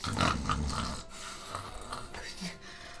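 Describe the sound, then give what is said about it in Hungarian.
A voice imitates a dragon snoring: one loud, raspy, guttural snore for about a second, then softer rumbling, snorting breaths trailing off. “horkol rendesen, vagy imádkozik, a fene tudja, hogy hangzik a sárkányok.”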